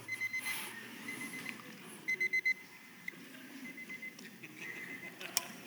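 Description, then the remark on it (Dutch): An alarm clock beeps in quick bursts of short electronic tones, a group of four standing out clearly, moderately loud against a soft, noisy background. “De, wek, de, wekker is gegaan.”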